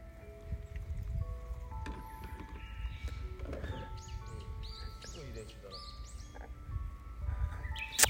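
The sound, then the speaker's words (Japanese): Outdoors on a fine day for golf, a Japanese bush warbler sings clear whistled phrases, its song rising over steady background noise and the low murmur of people talking. “しかも、ウグイスの鳴く声とともに、みんながめきめきと、おおいいですね。”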